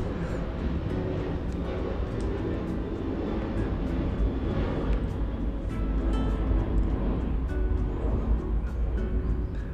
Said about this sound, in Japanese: まあ、ということでね、えー、たっぷり飛行機の音を聞いたところですよ。